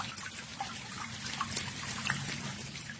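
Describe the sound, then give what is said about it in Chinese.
Light rain dripping and pattering on a window lattice in late autumn, a steady soft watery hiss with a few scattered, brighter drip ticks rising above it, with no voices. “终于，在一个大雁南飞的深秋，小雨滴滴答答的敲打着窗棂。”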